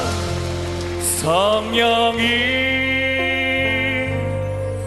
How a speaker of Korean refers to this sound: 우리와 함께하신 주님께 우리 감사의 박수 한번 드리겠습니다